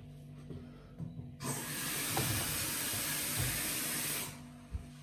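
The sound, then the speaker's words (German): A coffee machine making a coffee lets out a loud, steady hiss of steam for about three seconds, with low mechanical rumbling underneath, then cuts off abruptly, followed by a small clunk. “So, dann mache ich mir jetzt einen Kaffee und ihr hört das jetzt.”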